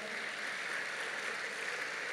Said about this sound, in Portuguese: Diga amém. Aplauda essa palavra maravilhosa.